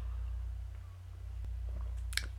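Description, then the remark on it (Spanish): Someone takes a small sip of coffee, with soft wet mouth sounds and a brief swallow over a steady low electrical hum. “de los cuales hablaré a continuación después de darle un traguito a mi café.”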